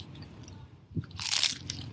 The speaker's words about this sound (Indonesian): Hmm, tetap crispy kan? Bunyi dari lembaran rumput lautnya itu terus gitu loh hmm. men isinya tuh rumput laut sama telur ikan yang kecil-kecil itu loh hmm.